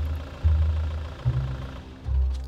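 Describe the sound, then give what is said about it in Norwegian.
A car engine rumbles low, its deep drone swelling in a few surges as the vehicle pulls up, with no voices. “Så kommer det en bil.”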